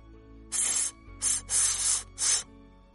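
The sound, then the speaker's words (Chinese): A sack of rotten apples roasting against a stove with a strongly burning fire in an inn's bar room: four bright, hissing bursts over a low background hum, the third the longest, with short pauses between them and no voices. “这是烂苹果在烤烂的声音。”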